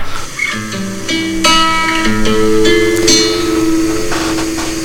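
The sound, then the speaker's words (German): Classical guitar plays a slow, melodic line of plucked notes that ring and overlap, with a steady hiss of rain underneath throughout. No one speaks. “Ich höre da wunderschöne Gitarrenmusik und jemanden, der richtig gut spielen kann, wobei ich keine Expertin bin.”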